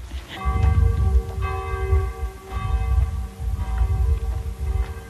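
The church bell of Catillon tolls noon, striking steadily about once a second with long ringing overtones that overlap, over a low rumbling background and no voices.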